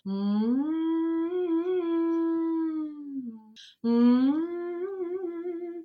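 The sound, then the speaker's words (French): A voice doing a siren warm-up: a sustained, howl-like tone slides up and holds with a slight wobble, breaks off briefly with a short high squeak, then resumes on a similar held pitch. “Et donc euh, je fais souvent les sirènes, c'est-à-dire...”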